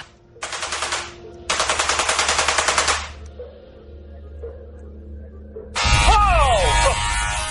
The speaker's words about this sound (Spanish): Esos son 400.000 voltios. Hace mucho ruido. Hace ruido, lo has notado, ¿eh? Lo he notado, sí.